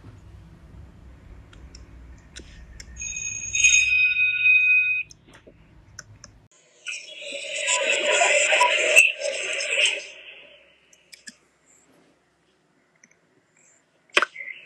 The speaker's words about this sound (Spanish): Ya casi suena la chicharra, será mejor que nos metamos.